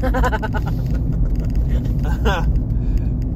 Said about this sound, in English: so yeah, uh, road is still really bad. I'm actually driving 70 now because the car ahead of me sped up a bit.